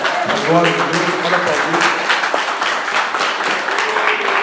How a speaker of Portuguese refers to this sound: Temos uma vida para Jesus. A igreja pode aplaudir e adorar o Senhor Jesus.